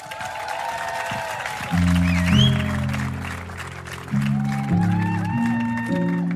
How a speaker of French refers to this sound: S'il vous plaît, un tonnerre d'applaudissements pour lui.